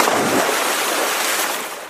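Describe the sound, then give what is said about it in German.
A loud splash as a cat lands in water, a dense watery rush that stays strong for nearly two seconds before easing off slightly, with no voices. “Mit einem lauten Platscher landete die Katze im Wasser”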